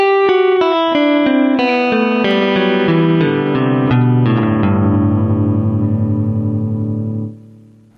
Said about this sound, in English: by having different notes ring out on different strings simultaneously, overlapping like wind chimes or bells. Let's try that again using the fingering that's presented in the tablature for example 1 and let's notice the difference in timbre.